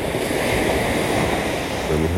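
Steady roar of sea waves and surf at a beach with a reef on a fine day, a broad continuous wash of noise at fairly constant loudness, with some wind buffeting and no voices.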